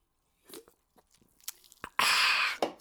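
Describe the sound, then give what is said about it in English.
Quiet sipping of Pepsi cola, with a few small clicks and slurps followed by a loud, steady carbonated hiss for about half a second, and no talking. “Time for a little sip of Coke. Pepsi, rather.”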